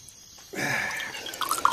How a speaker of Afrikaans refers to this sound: Kom ek gooi vir jou 'n bietjie water uit die sak wat hier aan die tak hang.